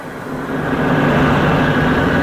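A leaf blower runs steadily and loudly, a continuous engine drone with a breathy rush of air and a low hum that holds constant throughout, a recording sent as a phone message.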